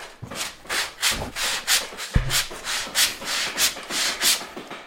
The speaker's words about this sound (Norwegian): Kan ikke du eh, saga en bit til meg, da? Det kan jeg gjøre.